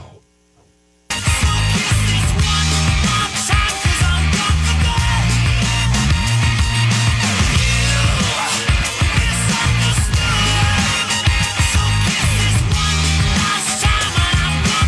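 A loud rock song kicks in after a brief moment of near silence, with heavy distorted guitars, thumping bass and driving drums playing continuously and densely throughout.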